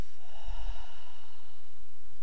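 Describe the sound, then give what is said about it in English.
A single long, steady exhale through the mouth, a soft airy rush heard alone with no talking, following a deep inhale through the nose during a seated guided breathing exercise. “Let's take a deep inhale through the nose and exhale through the mouth.”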